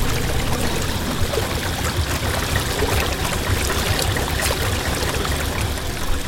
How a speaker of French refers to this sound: On se berce du silence rare émietté par les grumeaux de flottaison contre la coque